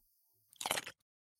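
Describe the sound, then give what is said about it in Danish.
A single crisp, crunchy big bite into a red pepper taken from the fridge, which turns out to be a chili, fairly loud, with a short crackling burst of about half a second in otherwise quiet surroundings and no voices. “Han tager den ud af køleskabet, og uden at tøve tager han en kæmpe bid.”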